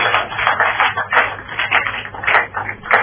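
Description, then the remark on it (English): An audience claps for Jesus: dense, overlapping hand claps that keep a steady, fairly loud wash of sharp slaps for the whole stretch, with no voices over it. “Give a clap of to Jesus.”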